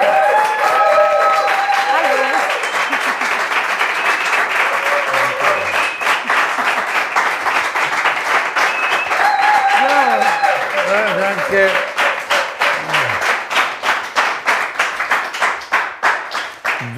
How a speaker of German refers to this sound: Wie früher, gell? Wie früher, ich wollte es gerade sagen, so viel Applaus bist du ja gewohnt, ne?